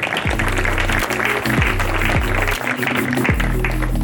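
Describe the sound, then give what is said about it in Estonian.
A steady wash of audience clapping for the third participant arriving, dense and continuous, with a low, thumping musical bass line playing underneath. “ja teeme talle aplausi.”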